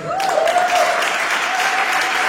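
A crowd claps in a steady, dense wash of applause that holds at an even loudness for a couple of seconds, with a faint whistle-like tone running underneath.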